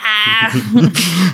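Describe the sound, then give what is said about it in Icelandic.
A person voices a brief throaty, guttural noise made with the back of the tongue: a short whiny, nasal tone that breaks into a raspy, scraping rasp, fairly loud. “eitthvað svona, svona hljóð svona með, með tungunni aftast í hálfum já”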